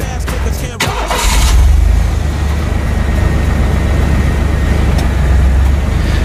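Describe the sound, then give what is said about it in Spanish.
A car engine, on a car with a caravan, cranks and catches with a brief burst of noise, then settles into a steady, loud, low idling rumble. “qué mejor que ir hacia allá con nuestro coche, con esta caravana. Vamos allá, nos subimos a tu coche.”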